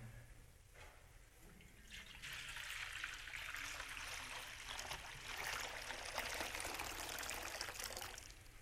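Water that was warm two hours earlier pours steadily into a basin for washing hands, a bright splashing rush that starts after a couple of seconds and continues evenly to the end, fairly loud with no voices.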